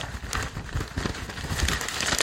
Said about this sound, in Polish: To było szeleszczenie gazety, proszę Państwa. Udało się w końcu wydać gazetę,